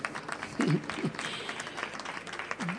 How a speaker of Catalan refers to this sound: i el premi és un petit aplaudiment. Vinga per ells. Aplausos